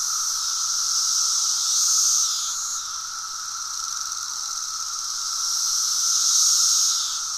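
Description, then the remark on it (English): A massive swarm of Cassini periodical cicadas forms a continuous, high-pitched buzzing drone that swells louder, eases off, then surges again as the insects synchronize their swells, with no voices present. “they all sync up, so you get this really powerful ocean swelling apocalyptic insect sound.”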